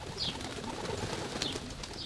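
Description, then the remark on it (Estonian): A flock of pigeons coos continuously, their low burbling calls overlapping into a steady murmur, with a few brief higher chirps cutting through now and then. “Nad levitavad teatud haigusi, reostavad maju ja parke sellepärast reguleeritakse viimastel aastatel kõigis suuremates linnades pidevalt tuvide arvu.”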